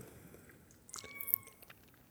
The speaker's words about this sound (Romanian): Ai o mâță care plânge.